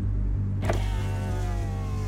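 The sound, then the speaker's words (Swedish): A car window motor whirs as the driver rolls the glass down, a steady mechanical hum over the low rumble of an idling engine, lasting about two seconds. “Föraren vevar ner rutan.”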